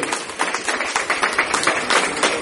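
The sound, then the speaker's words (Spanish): An audience claps for attendees who are in their first multilevel company, a dense, steady burst of applause lasting a couple of seconds, with many overlapping hand claps forming a bright, crackling wash of sound and no talking. “Muy bien, un aplauso a estas personas.”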